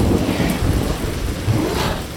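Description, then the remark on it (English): Heavy rain and gusting wind pour steadily in through a window opened wide, with a low rumble of thunder, loud, with no voices. “as he unlocked the window and yanked up until it opened wide, rain and wind pouring in.”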